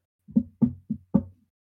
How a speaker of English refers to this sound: There's a knock on your front door.